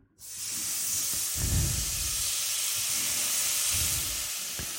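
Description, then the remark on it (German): Chicken strips hit a hot frying pan and erupt into a loud, steady sizzle, a dense hiss that holds for several seconds with a few low thumps and clatters of the pan underneath. “So, jetzt haue ich hier meine Hähnchenstreifen in die Pfanne.”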